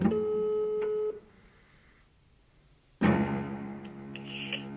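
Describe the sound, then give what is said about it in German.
A telephone ringback tone sounds through the line as a call is placed: a steady electronic buzz for about a second, a two-second silence, then the same tone starting again and running on. No one speaks. “Sie soll ihn anrufen.”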